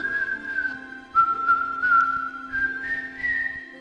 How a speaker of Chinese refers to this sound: 费琴老人精神饱满地边吹口哨边煮咖啡。